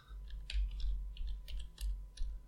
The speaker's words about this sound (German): Du hörst mich gerade tippen.